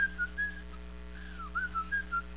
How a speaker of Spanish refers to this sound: Y el problema es que todo el mundo está silbando. Y están mirando al cielo y dicen,